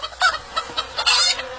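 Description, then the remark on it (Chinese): A rooster, let out of a bag by a village elder to lead the way at the foot of a mountain, clucks in a quick run of short, bright, repeated notes, some slightly louder and longer, with no one talking over it. “长老把带来的公鸡从袋子里放出来，在前面领路。”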